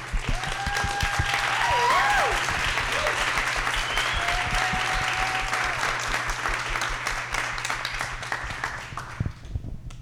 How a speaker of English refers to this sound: Thank you. Let's give a round of applause for our panelists.